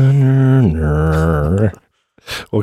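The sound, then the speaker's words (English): A single voice imitates an ominous music sting, holding a sustained tone that drops lower and then stretches out, followed by a brief pause and a short breathy laugh. “Cue foreboding music.”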